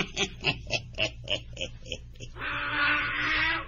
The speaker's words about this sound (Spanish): Eh, no, puede ser, abuelito. No. puede ser que un burro me asustara.